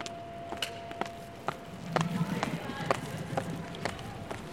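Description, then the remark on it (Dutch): Footsteps of travellers echo across the hall of Centraal Station: a steady stream of sharp, overlapping steps from several walkers, with a faint murmur of voices and a low steady hum behind them. “Daar hoor ik iets wat je normaal niet hoort. Voetstappen van reizigers.”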